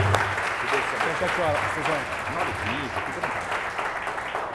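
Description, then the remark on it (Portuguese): A crowd applauds steadily, joyful clapping in praise of God filling the space for several seconds while a few voices call out and cheer underneath. “Palmas que louva a Deus, bem alegre.”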